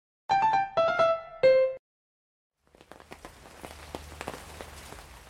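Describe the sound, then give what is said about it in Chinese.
Three bright, ringing musical notes sound, then a short silence before rain starts falling at night after a gust of wind, a soft steady hiss dotted with sharp scattered drops that grows busier toward the end. “啊，下雨了！”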